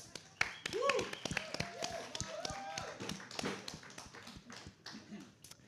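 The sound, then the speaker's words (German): Audience applause: a spread of irregular, crisp handclaps runs throughout at moderate loudness, with some voices calling out beneath and between the claps. “Mit Applaus, das ist da was.”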